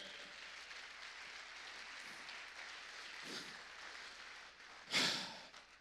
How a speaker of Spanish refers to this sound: Dele palmas al rey.